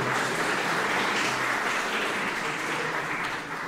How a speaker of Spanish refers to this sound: aplausos, aplausos para Shadow.